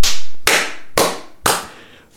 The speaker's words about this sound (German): Mal einer von den Schwabenfedern einen sauberen Treffer landet, fange ich mal lautstark zu klatschen an und guck mal, was passiert, ja? Und ich habe auch nicht gewartet, wie das Publikum reagiert, sondern zack, der Treffer war drin,